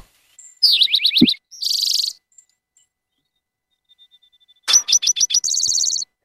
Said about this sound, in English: But yeah, the typical uh, way to describe the sound of the Eastern Towhee is drink your tea. So let me just put a bit more of it. and it makes a lot of different sounds too.